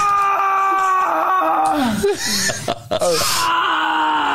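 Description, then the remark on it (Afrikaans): A woman moans and wails in pain, long wavering cries that rise and fall in pitch, broken by a few sharp gasping breaths, loud and with no speech; a sound clip played in a sound-guessing game. “Sy het 'n dis 'n moanende vrou. Sy's in pyn.”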